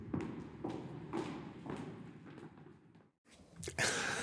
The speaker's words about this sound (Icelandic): og þetta var svarið þá bara þú heyrði fótatak Trínu Bránsen ganga í burtu framæði burtu, já, já uh, segðu mér meira segðu mér eitthvað meira á málun það, það er bara fótatak sem þú heyrði þar